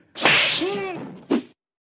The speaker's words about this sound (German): Die Ohrfeige.